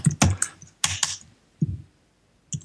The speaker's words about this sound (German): Klick. Klick. So komisch, wenn man sich selber klicken hört.